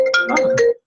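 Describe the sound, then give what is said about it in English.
A phone ringtone plays one short electronic melodic phrase, bright and tonal, fairly loud, cutting off after under a second with no one talking. “that's the phone.”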